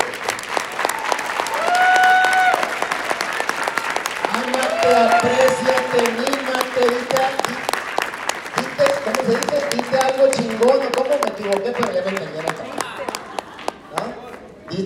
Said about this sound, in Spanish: Un aplauso para ustedes fuerte, fuerte, fuerte, fuerte, fuerte, fuerte, fuerte, fuerte, fuerte, fuerte, fuerte, fuerte, fuerte, porque la persona más importante el día de ahora eres tú, así que apláudete fuerte.